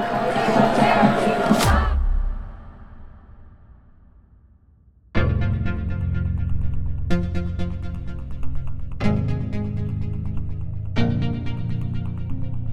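A loud crowd of women protesting outside the Supreme Court shouts the chant "es mi cuerpo y es mi decisión" (my body, my decision) for about two seconds, then fades into near silence before music begins with heavy chords striking every couple of seconds.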